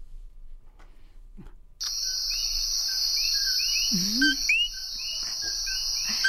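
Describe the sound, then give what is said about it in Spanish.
Small coquí frogs in a forest in Puerto Rico call in repeated short, rising two-note chirps over a constant shrill insect drone, which begins abruptly after a quiet start. No one speaks. “Terminamos hablando del coquí, este pequeño, esta pequeña ranita.”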